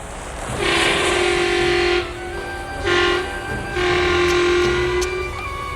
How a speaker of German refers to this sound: Sonne stand schon tief am Himmel, als Orlin die Hupe ein zweites Mal betätigte.